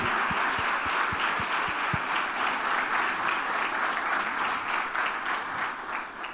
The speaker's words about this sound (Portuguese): Vamos aplaudir esses homens, queridos, em nome de Jesus.